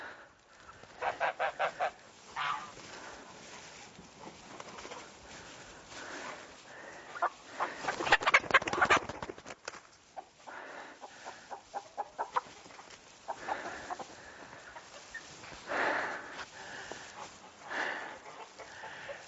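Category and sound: bird, rooster and chickens clucking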